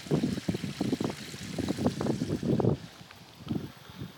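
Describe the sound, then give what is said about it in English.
Water trickles steadily outdoors from a village well that provides the village with its water, a soft continuous splashing, with gusts of wind buffeting the microphone in uneven low rumbles throughout. “So I'm just walking around the path around and you will possibly hear the water from the well which still um, provides the village with its water.”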